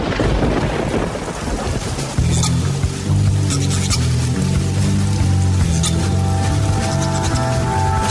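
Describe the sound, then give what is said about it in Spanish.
Steady rain hisses throughout, fairly loud, and after about two seconds a deep, sustained low rumble joins in beneath it. No one speaks. “Llueve.”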